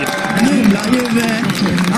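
A dense crowd at an election night event roars and cheers without a break as polls show the Sweden Democrats (Sverigedemokraterna) as second-largest party, many voices shouting at once over a steady wash of noise, with a few scattered claps mixed in.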